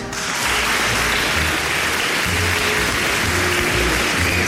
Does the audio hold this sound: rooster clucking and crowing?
no